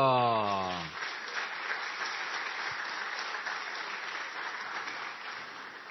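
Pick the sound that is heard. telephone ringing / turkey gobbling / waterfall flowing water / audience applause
audience applause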